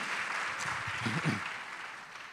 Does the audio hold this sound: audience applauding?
yes